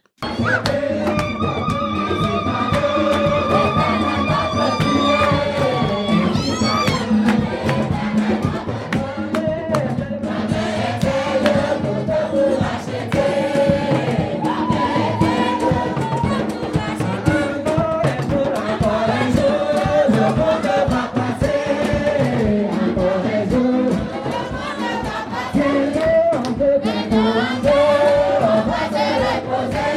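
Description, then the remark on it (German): Church service music in Chad, with a crowd singing together in sustained, overlapping voices over steady drumming on rhythm instruments, full and loud throughout the whole stretch. “mit Rhythmusinstrumenten, so Trommeln und so, machen sie Musik.”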